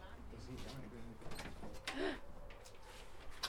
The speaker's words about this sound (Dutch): Ik hoor een deur. Oh, ik zie ook een deur.